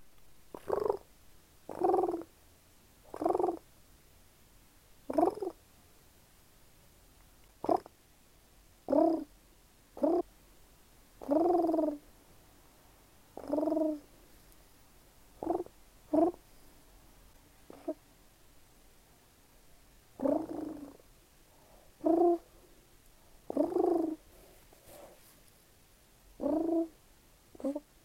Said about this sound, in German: Gur gur gur sounds like a cat, but it's a nice pigeon palometer.